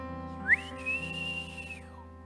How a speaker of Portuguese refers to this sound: Alguns pais ensinam seus filhos pelos assovios.